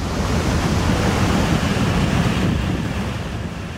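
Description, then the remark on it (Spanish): Strong wind of 30 to 40 knots roars over heavy ocean waves 4 to 5 metres high during a storm at sea heading north toward Greenland in late June, in a dense, continuous wash of noise, loud and steady throughout with a deep low rumble and no voices. “vientos de 30 o 40 nudos y olas de 4 o 5 metros que obligaron a la tripulación a bajar el ritmo.”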